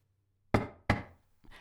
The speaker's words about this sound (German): Es klopft an der Türe des Zimmers, in dem unsere beiden Recken sich befinden.